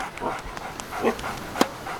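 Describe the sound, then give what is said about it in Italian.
A small dog named Mia yips and whimpers in short, scattered bursts, with one sharper bark standing out near the end, over a faint background. “Ciao Mia, bel cagnolino!”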